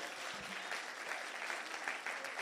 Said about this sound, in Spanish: Alguien diga gloria a Dios. Dale un aplauso fuerte a Jesús, vamos.